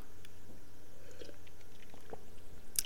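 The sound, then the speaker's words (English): Someone takes a quiet sip of a drink, with soft wet mouth sounds and small slurps, ending in a brief sharper slurp; no one speaks. “I gotta take another sip of this one, y'all.”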